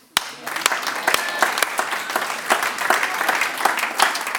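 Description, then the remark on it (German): An audience of men bursts into sustained applause, dense rapid clapping from many hands at steady loudness, with a few sharper claps standing out. “Ihr Frauen seid fantastisch, alle Männer klatschen.”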